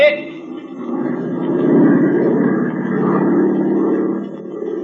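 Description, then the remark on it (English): A steady, low droning airplane engine hums throughout as the plane flies about a hundred miles from the border of Chile, with a slight rise and fall in loudness but no breaks, a continuous in-flight rumble. “Dip your starboard wing a little.”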